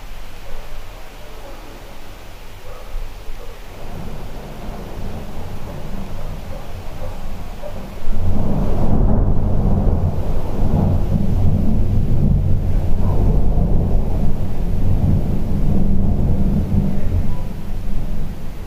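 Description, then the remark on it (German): Thunder rumbles through a windy storm, starting with a low, steady background roar before a loud crack around the midpoint swells into a sustained, booming rumble that rolls on to the end. “Aber es wird bestimmt noch ein paar Mal knallen.”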